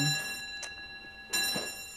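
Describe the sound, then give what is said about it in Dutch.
A clock chimes with steady, ringing tones that hang in the air throughout, fairly quiet, while a couple of brief, soft rustling noises pass over it. “de klok. Oh, Kijk.”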